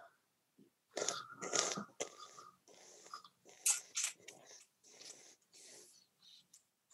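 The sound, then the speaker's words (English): Wet slurping of olive oil with sharp hissing intakes of air as a person tastes it, repeated in irregular bursts over several seconds with short gaps between them. No one speaks. “So I'm I'm slurping. I'm I'm I'm hissing in air, and and uh, and again the flavors are changing right in my mouth as I and and in my not just my mouth but up in my sinus cavities as i'm as i'm breathing it in”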